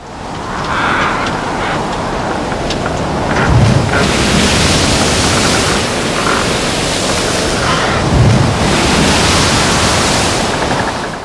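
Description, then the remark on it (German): Strong wind whips around a small island, rushing and roaring steadily, swelling into louder gusts every few seconds, with a surf-like wash underneath and no voices. “Der Wind peitschte um die kleine Insel.”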